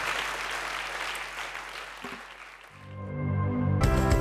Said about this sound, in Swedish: Det kan vi inte ge dem en härlig applåd? Vilka fina människor.